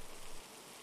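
A soft, steady hiss of rain falling, even and continuous throughout, quiet and without voices.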